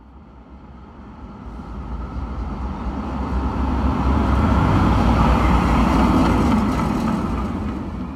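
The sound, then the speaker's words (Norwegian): A rattling blue tram in Oslo rumbles along a city street, its broad, noisy drone swelling louder toward the middle, with road traffic blended in and no voices. “Tar du en av de blå, skranglete trikkene fra Oslo sentrum og rett nord, da kjører du sannsynligvis gjennom Grünerløkka.”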